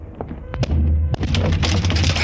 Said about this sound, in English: Open the door, I'll break it down.